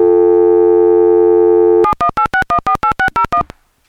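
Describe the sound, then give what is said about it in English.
A steady telephone tone hums for about two seconds, then a quick run of about ten touch-tone beeps of shifting pitch as a number is redialed after a dropped call, loud, with no talking. “Let me see if I can get him back on the line.”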